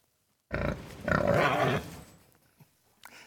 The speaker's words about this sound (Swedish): Eckerös ljud är ett lejon, tror jag bestämt.